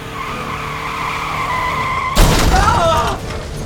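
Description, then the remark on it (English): A 4x4's tires squeal in a long, steady skid, then a loud crash erupts as the vehicle smashes through a fence while Egyptian soldiers dive out of the way, with rattling debris and more squealing afterward. “We slammed through the fence and the Egyptian soldiers dived out of the way.”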